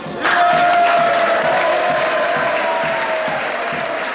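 A crowd breaks into sustained applause with cheering and a few whoops mixed in, loud and steady throughout, with a high whistle-like tone running through the first part.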